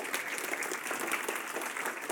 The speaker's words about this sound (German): wir können dir mal einen Applaus geben.